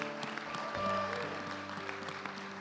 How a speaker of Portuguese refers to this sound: Aplaude, Ele aplaude, tá aleluia.